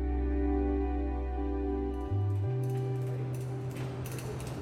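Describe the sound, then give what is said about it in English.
Film set bustle on the set of Ma Rainey's Black Bottom: a steady, loud mechanical rumble as props are wheeled around and cameras move on booms and tracks. Its pitch shifts partway through, followed by scattered clicks and clatter. No voices. “So we're back on a film set, props being wheeled around, cameras on booms, on tracks, people everywhere, noise and lights, shouts and bursts of clapping.”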